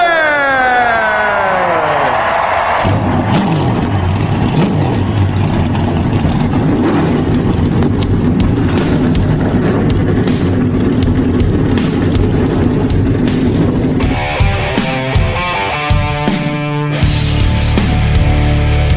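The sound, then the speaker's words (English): Race car engines roar to life and rev hard, with rising and falling harmonic whines sweeping up and down, loud, continuing steadily with sharp bursts and gear shifts toward the end. “start your engine.”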